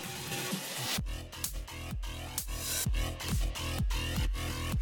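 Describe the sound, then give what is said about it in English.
A steady hi-hat rhythm ticks along inside a looping electronic drum beat, with punchy kick hits beneath it, following a brief burst of noisy sound at the start. It is an audio cue pattern to be repeated in time with the music. No one speaks. “For the hi-hat, repeat the pattern with the right trigger.”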